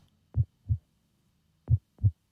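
Two pairs of soft, low, thumping heartbeats, lub-dub then a pause, then lub-dub again, steady and close with no voices.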